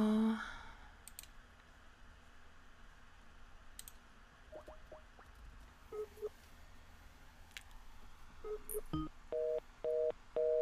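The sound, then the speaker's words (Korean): Scattered clicks and a series of short keypad dialing beeps as a phone call is placed that fails to connect, followed by a regular pulsing busy tone repeating near the end; no one speaks. “어, 제가 전화 한번 해볼게요.”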